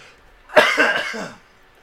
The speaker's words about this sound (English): also, if you guys hear me coughing, it's I took a drink during one of those jokes that I just said it's good afterwards. and I really did, I really did laugh and just like inhale ramen coke down the wrong pipe.